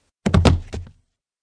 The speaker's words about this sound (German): Nun schlug auch noch etwas dumpf gegen das Holz, als würde jemand seinen Körper dagegen werfen.